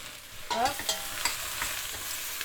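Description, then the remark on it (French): A spatula scrapes and stirs shrimp being flambéed with sake and yuzu in a hot pan, steady sizzling underneath with several sharp scraping strokes, fairly loud, no talking. “On s'arme d'une spatule”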